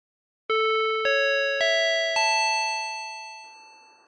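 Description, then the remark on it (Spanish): A four-note airport public address chime rings out clearly, each bell-like tone stepping higher in pitch, with the notes overlapping and slowly fading. No one speaks. “Escúchame, cacerolo. Eh, ese aviso, escucha, a ver.”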